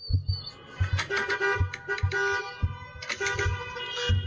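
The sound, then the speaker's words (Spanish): Several car horns blare at once in busy daytime traffic during an armed robbery of a driver, overlapping into a steady, loud honking chorus, with a rhythmic low thumping underneath throughout from a pistol knocking against a car window. “si a plena luz del día llega un güey con pistola en mano, le toca el vidrio a uno, tiene que bajar el, el cristal, lo amenaza, le pega, y todo el mundo tocando el claxon, así se escuchó, miren nada más.”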